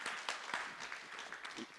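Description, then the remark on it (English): A church audience breaks into applause during a sermon. A dense, steady wash of many hands clapping at moderate loudness, with scattered sharper claps, continues without a break. “Because they can see, yeah, you can clap that.”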